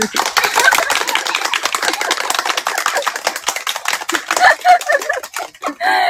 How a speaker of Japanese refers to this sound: 拍手をくれましたけど。